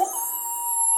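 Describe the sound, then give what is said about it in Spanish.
A voice mimics a wolf howl, one steady drawn-out note held for about a second, fairly loud with nothing else around it. “No, Bartolito, ¡Eso es un lobo.”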